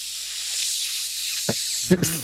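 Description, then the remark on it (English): A steady, bright hiss of food sizzling in a pan runs throughout at moderate volume, broken near the end by a soft knock and a brief burst of a voice. “you you may, but keep in mind I do have a frying pan in my hand right now.”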